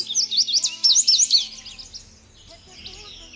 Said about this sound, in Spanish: Qué hermoso pajarito. Vuela, vuela muy alto.